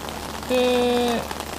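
Steady rain falls throughout, recorded on a new microphone, with a dense, even patter and hiss, while a brief tonal hum or whine rises over it in the middle for about half a second.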